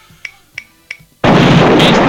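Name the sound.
explosion sound effect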